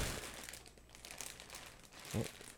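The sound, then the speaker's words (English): A plastic bag holding a tripod's owner's manual crinkles continuously as it is handled, with bursts of rustling and crackling and a brief thump near the end. “Before we take a look at this, inside the plastic bag is an owner's manual in case you've not uh, seen a tripod before, I suppose.”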